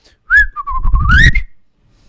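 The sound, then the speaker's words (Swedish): A person whistles a short imitation of a chaffinch's song: one phrase of about a second, wavering and dipping, then rising into a quick flourish at the end. “Bofinkan, vänta. Den låter...”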